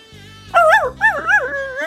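A small passing puppy gives three quick, high-pitched yelps that bend into whiny whimpers, fairly loud, over a low steady hum in the background.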